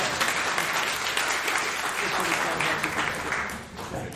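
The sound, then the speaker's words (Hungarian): A sustained round of audience applause for the moderator, dense and steady clapping from many hands, fairly loud, tapering slightly near the end. “És akkor most a moderátornak is egy nagy tapsot.”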